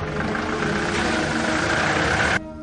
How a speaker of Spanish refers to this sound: Nervioso y desconfiando de unos hombres que en ese instante pasan junto al vehículo, se introduce en el coche y trata de arrancarlo. Tras conseguirlo, los faros se encienden y el coche de Sadiki se marcha.